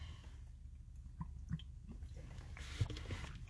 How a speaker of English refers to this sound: Excuse me, just getting a drink of water.